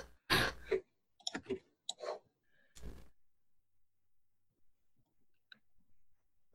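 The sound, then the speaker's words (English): Physical dice clatter and tumble in a few short, sharp bursts of clicking across the first three seconds, moderately loud, followed by near silence with only faint ticks, as the dice are rolled for non-player characters in a tabletop role-playing game. “I have physical dice because Pathfinder NPC sheets are still not that great.”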